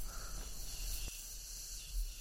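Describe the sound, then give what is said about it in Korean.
A steady, high-pitched drone of cicadas buzzing continuously in the background, fairly faint, with no voices and only a brief soft click partway through. “매미 소리가 멈추는가 싶더니 우편 배달부의 오토바이가 지나갔다.”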